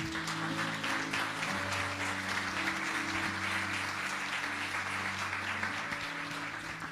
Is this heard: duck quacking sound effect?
no